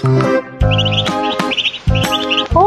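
Small birds chirp in quick, high twittering bursts that repeat several times, layered over a loud, sustained musical backing with strong low notes and sharp attacks.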